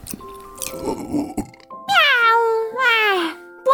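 A cat gives two loud, drawn-out meows, each sliding down in pitch, after a stretch of quieter, muffled rustling noise.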